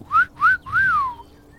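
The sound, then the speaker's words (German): A person whistles three short bird-like chirps in imitation of birds chirping, two quick rising-falling notes followed by a longer swooping one, with no talking. “Vögelchen zwitschern.”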